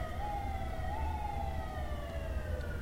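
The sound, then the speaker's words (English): An ambulance siren wails steadily, its tone gliding slowly up and down, with a low road rumble underneath. Loud and continuous throughout, with no one speaking. “I guess I guess the ambulance because shit about to get real.”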